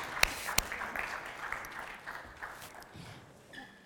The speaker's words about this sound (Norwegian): Kan vi klappe de frem, de som flytter seg? Tusen hjertelig takk.